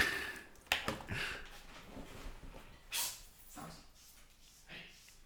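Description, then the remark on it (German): Someone in the background shoos their cat off the windowsill of an open window: scattered soft bumps and shuffling, broken by a few short, breathy hissing bursts, all fairly quiet with no clear speech. “wir hören im Hintergrund …, der jetzt seine Katze verscheucht”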